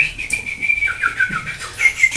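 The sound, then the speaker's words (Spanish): A person whistles an imitation of bird chirps, a wavering high-pitched tone with quick trills and short chirpy flicks, fairly loud with no talking. “escuchas a los pájaros.”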